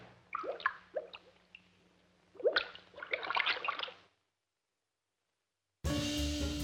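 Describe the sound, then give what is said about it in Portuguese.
Crisp water drips from a leaking Deca faucet fall in irregular clusters over a faint low hum, then stop into silence before a dense, loud burst of other sound cuts in at the end. “Por isso, se a sua torneira Deca estiver vazando, é porque você simplesmente esqueceu de fechar.”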